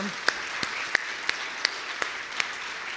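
Applause from an audience: a steady wash of clapping with a handful of sharper individual claps standing out at irregular moments, fairly quiet overall and with no talking.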